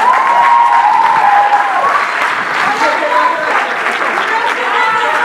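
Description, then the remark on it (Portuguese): A crowd at a university faculty claps for a professor in a dense, sustained round of applause, loud and even throughout, with a faint voice or cheer rising briefly above the clapping. “portanto acho que uma salva de palmas para o senhor.”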